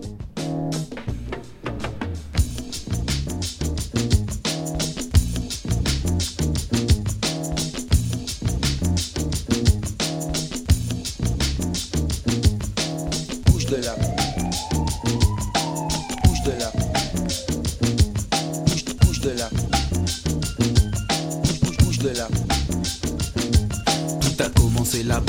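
A hip-hop instrumental intro of a rap track built on a sample plays with a steady, punchy drum beat and a looping sampled bass groove. A siren-like rising and falling tone sweeps through midway. There are no vocals.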